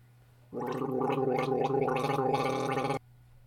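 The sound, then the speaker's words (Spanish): A person gargles water for about two and a half seconds, a steady bubbling, voiced rattle, starting and stopping abruptly with quiet before and after. “Yo aquí tengo agua, así que lo voy a hacer con agua para que ustedes escuchen cómo normalmente sonaría.”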